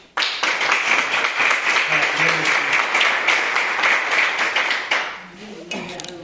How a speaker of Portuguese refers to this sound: E as palmas que adoram o Senhor